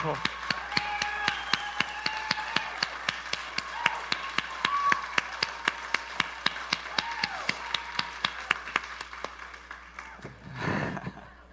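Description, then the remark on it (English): A church audience claps together in a steady, even rhythm for about ten seconds over faint tonal sound and voices, applauding their team on a rainy Sunday morning, then breaks into a short, louder burst of scattered applause before it fades. “So, could you really give it up for your team? Let them know how much you appreciate them.”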